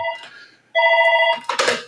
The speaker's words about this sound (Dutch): Eh, ja, dat is mijn telefoon.